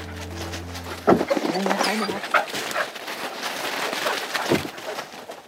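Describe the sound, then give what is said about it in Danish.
Several hunting dogs, a cocker spaniel and a couple of labrador retrievers, whimper and whine in short, high-pitched bursts over a steady outdoor background with a low rumble at the start and faint voices. “Altså nu de her, vi har med her, det er jo bare en kokkerspaniel og et par labrador retriever og det er jo ikke, det er jo ikke, det er jo ikke tyske hunde.”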